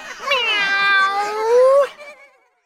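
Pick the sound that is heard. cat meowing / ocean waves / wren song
cat meowing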